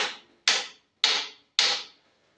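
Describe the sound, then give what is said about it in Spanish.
A pencil taps out a steady beat: four crisp, evenly spaced knocks about half a second apart, each sharp and bright with a short ringing decay. No voices. “De hecho, cuando estamos dando golpes, cuando estoy marcando el pulso con el lápiz, así, les voy a poner el ejemplo”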